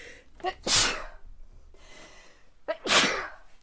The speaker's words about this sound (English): Hang on, I'm going to sneeze.